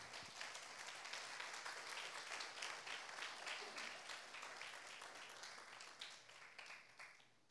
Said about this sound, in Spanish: Dale una ofrenda de palmas al rey.